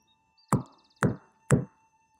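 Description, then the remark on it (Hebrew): Three firm knocks on a heavy wooden cave door, evenly spaced about half a second apart, solid with a dull resonant thud, over a faint steady background tone; servants knock on the door of a hermit's cave. “מספר משרתים עלו על הסוסים ורכבו ורכבו ודהרו ודהרו עד שהגיעו למערה בגר הנזיר הם דפקו על דלת המערה.”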